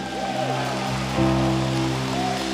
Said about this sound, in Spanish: Así que dale un fuerte aplauso al Señor.